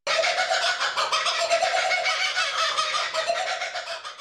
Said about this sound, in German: Und in Wirklichkeit klingt dieser Cockabura ganz anders.